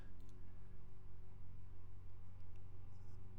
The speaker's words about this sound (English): Is the neighbor mowing? the neighbor is mowing. That's amazing. Uh, I don't know if you can hear it, but apparently my neighbor just right now decided to start mowing.